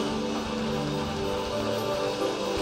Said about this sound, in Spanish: Dale un aplauso fuerte al Señor entonces.